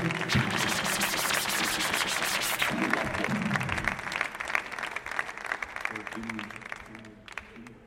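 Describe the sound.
At a live show in Sevilla, a crowd cheers for a DJ, clapping loudly and steadily throughout, dense applause mixed with cheering and shouting voices, fading slightly toward the end.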